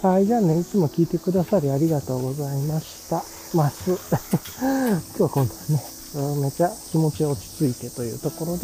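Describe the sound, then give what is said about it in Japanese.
Higurashi evening cicadas call steadily in summer, a continuous high shimmering chorus under a man talking throughout as he walks slowly along a back street, with wind blowing. “この夏の小蝉の声であるとか、まあ、太陽の感じ、それから自分が落ち着いた感じであるとか、ちょっとしたね、この日暮らしの声の入り方とか、まあ、今ちょっとそう風が吹いてる。”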